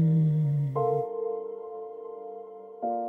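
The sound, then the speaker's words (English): A steady, gentle hum held for a few seconds as a person breathes out during a breathing exercise, a voice imitating a bumblebee's drone with smooth, even tone and slight shifts in pitch partway through. “And then when you breathe out, make a gentle humming noise, just like a bee.”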